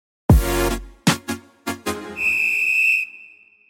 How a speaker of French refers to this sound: On l'écoute après ce jingle.